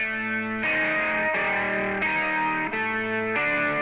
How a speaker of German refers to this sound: Eine E-Gitarre spielt dazu, auch verzerrt, erklärt sich von selbst. Hier hören wir sie mal alleine.